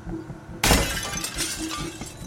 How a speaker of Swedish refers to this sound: Då smällde det till och tusentals bitar glassplitter flög rakt emot mig. Jag kastade mig ner på golvet för att ta skydd. Fönstret till sovrummet hade krossats och den kyliga luften, blandad med regndropparna, vällde in i rummet.